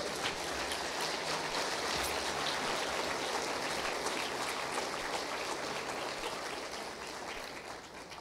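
A worship audience applauds God, a dense crowd of clapping that continues steadily for several seconds before tapering slightly toward the end.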